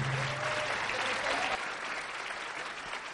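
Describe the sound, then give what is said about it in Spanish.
A crowd breaks into sustained, loud applause for the leadership of northern Mexico, a dense wash of clapping that holds steady for a few seconds, with faint voices mixed in at the start. “Así que yo quiero que le den un fuerte aplauso a todo el liderato del norte de México.”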